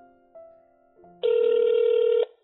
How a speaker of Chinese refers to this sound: 哎哎哎，阿是接不接电话啦？恁老母问你要不要回家吃晚餐呐？紧回电话啦！